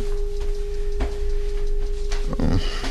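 A steady electric buzzing tone hums without a break from start to finish, holding one even pitch at moderate loudness, with a few soft knocks and rustles around it and no talking.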